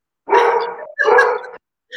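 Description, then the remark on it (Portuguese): A dog barks loudly when a car passes in front, two long, throaty barks in quick succession followed by a third that starts after a short pause, with no voices. “O cachorro já até partiu junto com você.”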